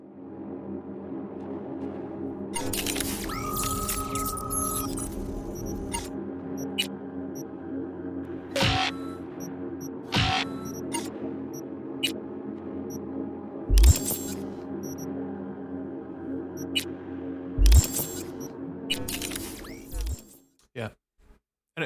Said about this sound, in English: Um, I've got some menu sounds as well. It's kind of my last bit of audio I thought we could go through, and I, you know, I think it's of the same thread of like how this game kind of presents itself. Everything is digital and and loud and fun.